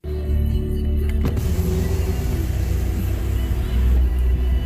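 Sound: car pulling up alongside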